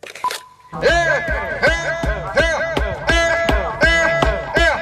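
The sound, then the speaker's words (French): Steady, heavy hammer blows pound sesame dessert dough flat on a stone millstone about twice a second, loud, while voices chant or call out in rhythm with the strikes, at Jiayu Pass on the Great Wall. “Un marteau pour aplatir la pâte d'un dessert au sésame sur une meule de pierre, décrit pour se donner du courage au col de Jiayu.”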